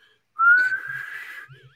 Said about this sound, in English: Uh uh, I'm I'm all of a sudden I start to whistle,